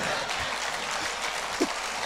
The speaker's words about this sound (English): Give my mother a clap. She's in the second row there.